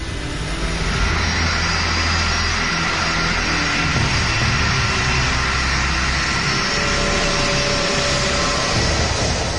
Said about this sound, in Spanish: Impulsado por sus tres motores, el avión se abre paso por la pista.